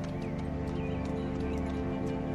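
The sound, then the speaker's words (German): Steady clip-clop of horse hooves as several horses, spurred on by their riders, travel toward the town of Steinburg as the day cools toward evening, a continuous rhythmic patter over a dense layer of background ambience, with no one talking. “Ihr gebt den Pferden nochmal die Sporen und dem Hund ein Leckerli, was die Pferde ein bisschen anpisst, weil die ein bisschen neidisch sind.”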